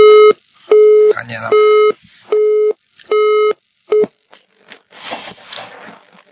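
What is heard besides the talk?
telephone busy tone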